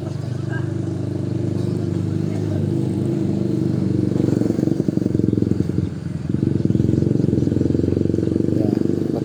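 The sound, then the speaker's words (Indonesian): Steady roadside traffic, heard from someone sitting at the side of a road as many vehicles pass back and forth, rumbles throughout, with motorcycle engines droning and swelling as vehicles pass, a brief dip midway before the noise builds again; low, continuous, fairly loud, with faint voices mixed in. “ini berisik nih soalnya aku lagi duduk di pinggir jalan jadi banyak kendaraan lalu lalang”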